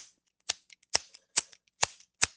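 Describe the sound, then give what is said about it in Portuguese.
The speaker's own lighter being flicked five times in a steady rhythm, each strike a sharp scraping click with brief quiet gaps between, and no voices. “Sou anoplastia feita com meu isqueiro.”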